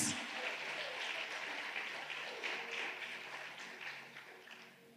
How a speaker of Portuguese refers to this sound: Você pode aplaudir Jesus.